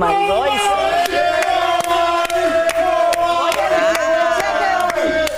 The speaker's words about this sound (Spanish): Eso cuesta un dinerito, esos gritos. yo creo que el público está exagerando